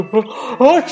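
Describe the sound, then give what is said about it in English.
A voice acts out the story character Papa's big sneeze, an even bigger sneeze than before, outside the doctor's office in Beartown: two drawn-out, rising "ah" sounds that end in a hissy, breathy burst. It is loud and fills about a second. “the doctor, said Papa, sneezing an even bigger sneeze than before.”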